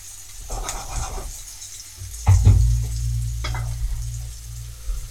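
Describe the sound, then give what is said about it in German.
Food sizzles and crackles steadily in a pan, with a couple of louder scraping jolts as the pan is shaken back and forth over a low rumbling hum. “und die Pfanne immer ein bisschen hin und her schuckelt.”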